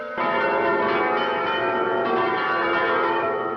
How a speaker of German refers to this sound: Kirchenglocken während der Antrittsrede des neuen Stadtoberhaupts. Ein Affront, der wenig später in gleicher Münze zurückgezahlt wird.